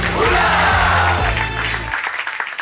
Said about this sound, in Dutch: Een daverend applaus voor Sophie Lemaire.